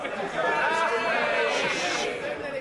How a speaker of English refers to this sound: Listen to that rabble. Listen to them. Sit down a minute.